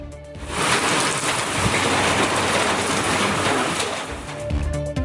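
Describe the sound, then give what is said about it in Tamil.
A steady, dense hiss of heavy rain pours down with a rattling patter of hail during a hailstorm in areas including Rasipuram and Hosur, loud and continuous throughout, with no voices. “ராசிபுரம் ஹோசூர் உள்ளிட்ட பகுதிகளில் ஆலங்கட்டி மழை”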